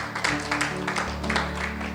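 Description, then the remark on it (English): An audience applauds the team with dense, steady hand clapping, many overlapping claps forming a continuous patter at an even loudness throughout, with a low sustained tone underneath. “Why don't we give the team a, a hand clap as well?”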